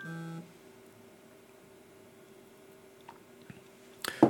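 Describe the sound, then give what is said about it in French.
A phone gives a loud electronic beep lasting under half a second, then a faint steady tone hums on before a brief clattering burst at the end. “Bon, faut que je coupe ce téléphone parce qu'il arrête pas de faire des bip bip.”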